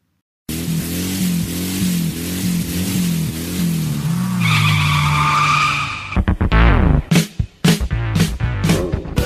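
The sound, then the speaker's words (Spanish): A loud race car engine revs up and down in pitch, then tires squeal in a sustained screech, followed by a rapid series of sharp engine bursts, with no voices. “Llegó el momento de encender los motores. Comenzamos la vuelta previa y largamos con ….”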